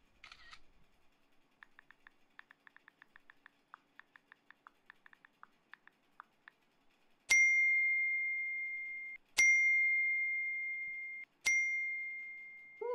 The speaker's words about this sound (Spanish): ¿Qué pasó que te llegan tantas notificaciones? Me están insultando y dejando de seguir.